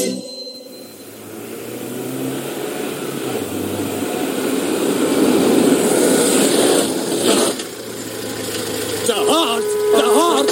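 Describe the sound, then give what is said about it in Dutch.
Busy rush-hour road traffic with a steady rumble of engines swelling and passing, then near the end a few loud, sustained car horn blasts sound out over the noise. “Hoor je die toeters niet? Dat is de spit, Daar moet je bij zijn.”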